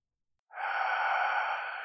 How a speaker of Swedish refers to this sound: Dmitri tryckte på knappen och började andas kraftigt in i mottagaren